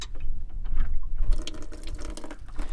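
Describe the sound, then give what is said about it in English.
Water sprays from a sprayer pressurized with a bike pump: after a moment of low rumble and drips, a steady hissing spray starts and splashes continuously to the end, with no talking. “This plugs in, and then you've got pressurized water.”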